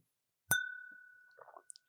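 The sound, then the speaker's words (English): A single bright clink of glasses touching in a holiday toast, its clear ringing tone sustaining and slowly fading over more than a second, followed by a few faint soft taps. “And so, cheers to David.”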